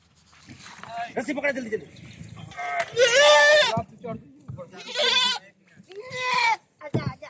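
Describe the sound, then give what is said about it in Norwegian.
A goat bleats loudly and insistently, three long wavering cries in a row with short gaps between, amid a murmur of background activity, as it is moved into a rubber dinghy during a flood rescue in Bihar province, eastern India. “Geita den protesterer heftig, men den må over i gummibåten.”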